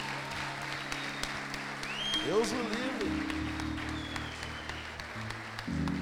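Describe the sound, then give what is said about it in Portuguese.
An audience applauds steadily for several seconds in praise of Jesus, a dense, even wash of clapping, while someone speaks briefly over it and low sustained musical tones hum underneath. “Meu Deus, gente, aplauda Jesus aí, cara.”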